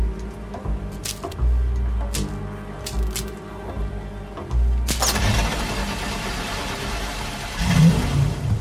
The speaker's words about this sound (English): How you get keys to a hot car? think in your mind I'm gonna pick up a stone fox and this bad motherfucker right here started up with a goddamn screwdriver in the ignition? I had my boy replace the lock, motherfucker.